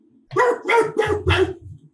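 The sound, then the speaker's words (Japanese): A person imitates a dog barking at a bear that is about to attack it, four quick, loud woofs in a steady rhythm, with no other talking. “うん、例えば、熊にアタックされ、されそう犬がいて、うん、で犬は必ず、”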